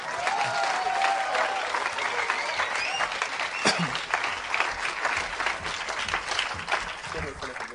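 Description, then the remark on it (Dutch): Steady audience applause with dense, rapid clapping that holds at a fairly constant loudness throughout, with a few scattered voices and a brief whistle-like tone mixed into the crowd noise. “applaus kan veel beter.”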